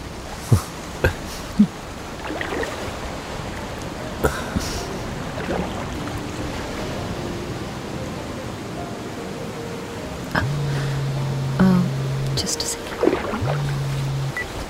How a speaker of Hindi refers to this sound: वो देखो जैसे वो लहरें आ रही हैं साहिल पर